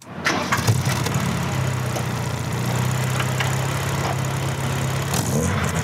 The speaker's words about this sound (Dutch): Mijn Porsche 924 staat hier voor de deur. Een 924, en die klinkt dan zo.